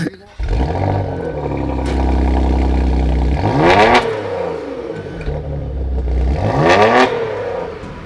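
A car engine, started with the key in the ignition, catches and settles into a deep, steady idle, then is revved hard twice, each rev a sweeping roar that climbs and falls back to the rumble.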